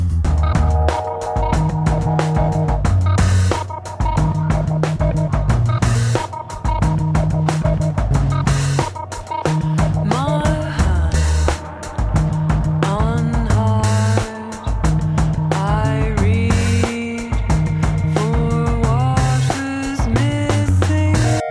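A full song plays steadily with an unchanged driving drum beat and bass, the hi-hat opening into sizzling hits over it alongside melodic synth lines, loud with no voices.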